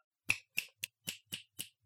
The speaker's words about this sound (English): this probably is not great for the microphone, but snapping my fingers.